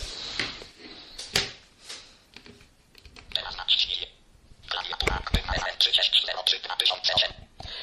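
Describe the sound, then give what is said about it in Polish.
Keypad buttons on a mobile phone running Symbian third edition are pressed firmly and deliberately loudly while browsing the phone menu, a series of sharp plastic clicks at an irregular pace, mixed with bursts of bright electronic chatter from the handset. “Będę specjalnie dosyć głośno naciskał klawisze, żeby było y, słychać.”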